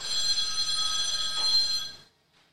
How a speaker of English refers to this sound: our weekly uh, phone call that Jeff gets on his phone because he never shuts it off